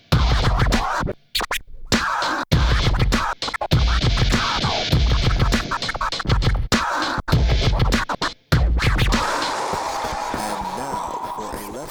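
Loud, choppy DJ turntable scratching, quick back-and-forth record strokes cut into rhythmic bursts with brief silences, riding over a thumping low beat before fading into a smoother, washy texture near the end.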